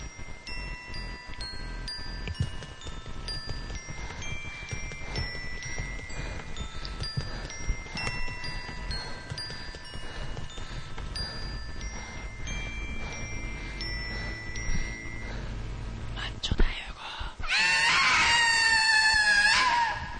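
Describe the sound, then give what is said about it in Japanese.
A busy, layered music jingle with sustained tonal lines and dense texture runs for about seventeen seconds, then ends in a loud burst of bright, shrill, scream-like sound. “13回ジングル。”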